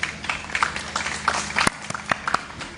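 Audience applause: a crowd claps steadily, with dense, overlapping hand claps and a few sharper, louder claps standing out. No one speaks.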